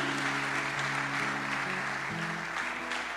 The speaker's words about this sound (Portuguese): E se isso é verdade, dê uma salva de palmas a Jesus.